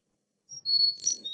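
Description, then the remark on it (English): A chickadee's clear whistled fee-bee song, a few high, pure notes stepping slightly downward in pitch, heard alone over faint low background rumble. “Or here's a, here's the song of a chickadee.”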